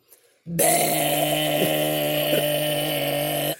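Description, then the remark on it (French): A voice imitates a Peugeot 103 moped with pedals: a sustained, buzzing drone of strong harmonics, wavering slightly in pitch for about three seconds after a brief quiet start, loud. “Mais sur un 103, sur un Peugeot 103, une mobilette avec les pédales.”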